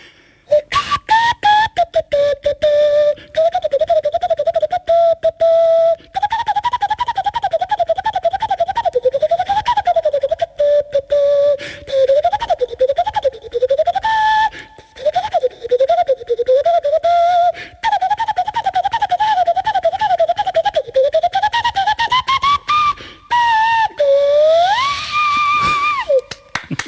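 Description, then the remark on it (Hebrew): A lively melody whistled through cupped hands, hooting and clear, with quick ornamented runs, trills and bouncing phrases that climb to a rising glide near the end, played alone without talk. “ועכשיו אני אנגן קטע מתוך הצ'רדה של מונטי. עם האצבעות של הידיים? כן.”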